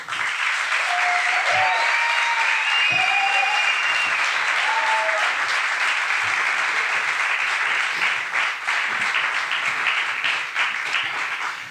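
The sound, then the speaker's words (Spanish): Sustained applause from an audience welcoming photojournalist Manu Bravo onto a radio programme, a dense steady wash of many hands clapping at an even loudness for about twelve seconds, with a few faint cheers or whistles rising early on. “Y por eso hoy recibimos con este ah, maravilloso aplauso al gran fotoperiodista Manu Bravo.”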